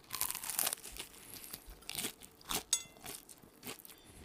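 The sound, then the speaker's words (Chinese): Crunchy bites into Jollibee fried chicken: a series of sharp, crackly crunches at irregular intervals, bright and crisp, with no talking. “这个我觉得光是听声音应该都知道差别了，但是它的味道。”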